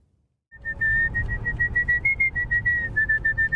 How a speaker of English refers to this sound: For many people, there's nothing like a good whistle to pass the time.